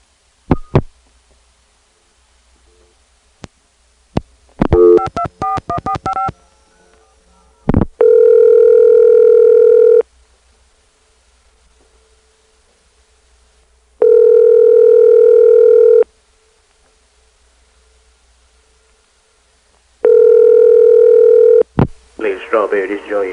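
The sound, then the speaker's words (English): A phone on a telco-provided key system hangs up with sharp clicks and a brief, rattling metallic ring from a relay, followed by a steady telephone tone that repeats in two-second bursts separated by silence. “Listen to the hang up and you'll hear a relay ring sound which is a telltale sign that they have a telco provided key system.”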